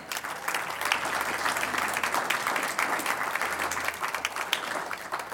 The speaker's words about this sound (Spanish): Lo hacemos bien, lo hacemos mejor cada vez, pero para honrar al Señor, un aplauso a Él.